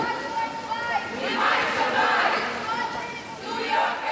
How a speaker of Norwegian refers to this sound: En og en halv grad, så kan det være at vi overlever, roper demonstrantene.